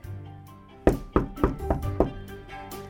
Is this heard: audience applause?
no